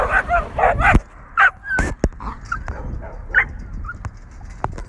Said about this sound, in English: Sorry about the dog.